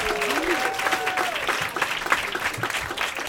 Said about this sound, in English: So, one more time, round of applause for our storytellers.